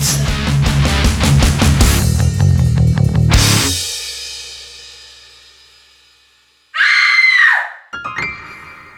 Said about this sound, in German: Ein markerschütternder Schrei reißt dich vollkommen unerwartet aus deinen Gedanken, gefolgt von einem Oh mein Gott, ist das ein Riesending! Gut, solche Sätze aus dem Mund deiner Frau sind dir nicht gänzlich unbekannt.